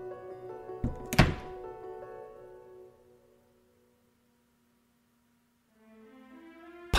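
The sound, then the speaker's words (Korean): A door is quietly shut by two people who have just entered a room, a soft double thunk, two muted knocks close together, over a low droning hum that fades into silence before a faint tone returns. “나와 비는 방 안에 들어가 문을 조용히 닫았다.”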